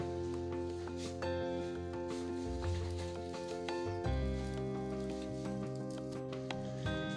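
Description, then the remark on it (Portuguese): Six eggs fry with tomato and onion, sizzling steadily in a hot pan, with soft crackles and pops over a constant droning hum, like a fan running. “É, quebrei seis ovos porque estou fritando com tomate cebola”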